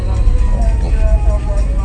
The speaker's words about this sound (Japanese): 緊急車両ですねこれは多分、えー、ガスのガスやねガス漏れが今起こってますね気をつけて